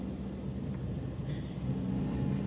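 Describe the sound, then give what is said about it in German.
An old Ford Fiesta's engine drones loudly and steadily as the car is driven, a deep rumbling hum with slight swells in intensity, with no voices. “Äh, naja, es ist ein alter Ford Fiesta. Die waren immer so laut früher.”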